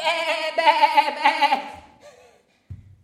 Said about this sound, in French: Et une fois fait, on attaquait. on se met la panique dans le troupeau. Il y avait des moutons qui couraient de partout.